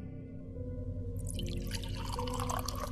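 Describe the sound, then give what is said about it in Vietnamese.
Tea is poured into a cup for a Buddhist monk, a bright, steady trickle of liquid that starts about a third of the way in and continues to the end over a low, constant background hum. “rót ly trà đưa cho vị sư thầy”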